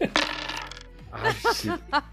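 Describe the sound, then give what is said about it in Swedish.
Seven dice clatter and rattle across a hard tabletop in a quick burst of bright clicks that fade out, followed by a voice speaking briefly. “Så då slog jag fel här, för jag skrev fel Jag använde en turpoäng till att pressa mina sju tärningar.”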